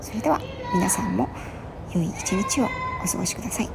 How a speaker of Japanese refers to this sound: 今ねマンションの敷地内でこそこそ話しているのでどこかのお子さんの声が入ってますね